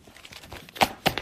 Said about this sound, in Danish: Ja, han har også nogle papirer, han sidder og banker. To, to stakker!